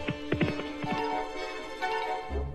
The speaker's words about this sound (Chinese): 国王一下子就跳到了马背上，疾驰而去。